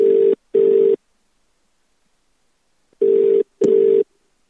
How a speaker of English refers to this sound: Get the old phone out, press, press dial Woody. Woody. You got your Woody button on there. Just gonna press it now.